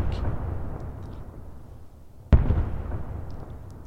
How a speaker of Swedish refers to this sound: Plötsligt hörs tre öronbedövande explosioner bara ett par kilometer från oss.